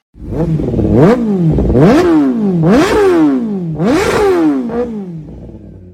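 A loud motorcycle engine revs repeatedly, its pitch climbing and dropping in four or five sweeping surges, unbroken, with no voices.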